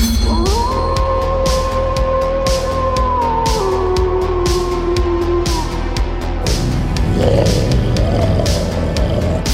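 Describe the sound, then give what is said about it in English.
A summoned wolf creature gives a loud, sustained howl that glides slowly downward over several seconds, then breaks into a rough, growling roar, set against a dense, busy background. “I did it! I summoned a Trax Wolf!”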